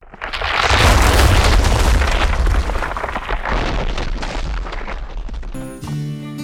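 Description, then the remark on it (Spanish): A hayloft collapses under the weight with a loud crash, a deep booming rumble and crackling debris that roars for about five seconds, then gives way to sustained musical tones. “pero de pronto el pajar se derrumbó por el peso”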